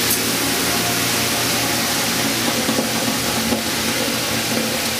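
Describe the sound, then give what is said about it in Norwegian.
Water poured on hot stones in a mobile sauna to cool the stones gives off a loud, steady hiss that fills the whole stretch without pause, a dense sizzling rush with no voices over it. “Så først så tar jeg en bønsemysje eh, med vann på steiner, bare for å avkjøle steiner det man kan.”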